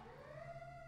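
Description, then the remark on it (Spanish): An ambulance siren wails outside, a faint tone sliding slowly upward over a low steady hum, with no voices present. “No, eso es una ambulancia.”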